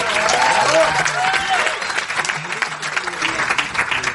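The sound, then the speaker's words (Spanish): An audience applauds steadily as a speaker is introduced, a dense, loud wash of clapping that holds for several seconds with a few voices and cheers mixed in, easing slightly toward the end. “Fuerte el aplauso para”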